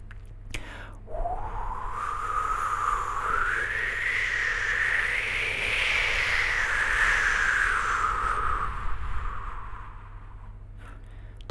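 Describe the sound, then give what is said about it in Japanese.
A voice imitates the wind as a nature sound effect, a long, breathy whistling hiss that rises and falls in pitch, swelling in the middle and fading near the end, heard alone for about ten seconds. “あとはまあ自然の音とかで風の音”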